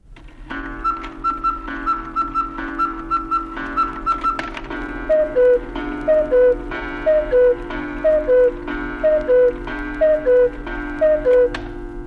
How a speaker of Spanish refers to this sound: Pero a partir del siglo XIII empezó a escucharse en Europa el ruido de los relojes mecánicos. Estos sí suenan.